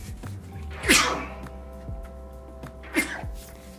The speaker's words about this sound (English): excuse me, y'all. I had to sneeze.